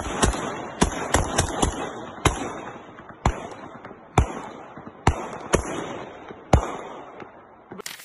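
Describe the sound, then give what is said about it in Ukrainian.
Sharp gunshots crack out in an irregular series, over a dozen in eight seconds, some in quick clusters and others spaced apart, fairly loud against a steady background with no talking, as police officers in the capital fire at a flying drone. “Стріляй, стріляй по ньому зразу.”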